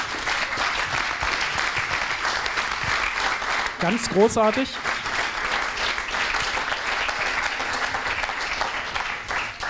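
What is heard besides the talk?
audience applause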